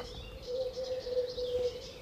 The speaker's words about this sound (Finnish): Ja tavallinen eh, viherpeippokki siinä on.